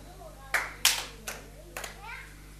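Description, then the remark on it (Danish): A few scattered hand claps from an audience answering a question about fasting during Lent, four sharp irregular slaps over about a second and a half, followed by faint murmuring voices. “Det, der, der er ingen andre, der har klappet, når jeg har spurgt om det sådan, ikke også?”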